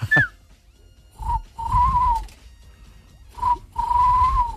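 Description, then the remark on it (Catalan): A person mimics a tawny owl's hoot twice over the phone: each time a short hollow note, a brief pause, then a longer wavering hoo, fairly loud with no talking. “Estava fent primer el gamarús. Ja, el gamarús? Eh, en el sentit ornitològic del terme, eh?”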